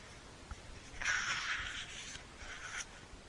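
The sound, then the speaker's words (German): A pen scratches quickly across paper in a few scribbling strokes while writing a pro-and-con list, with short bursts of scraping and brief pauses between them; no one speaks. “Ich muss eine Pro-Kontra-Liste erstellen.”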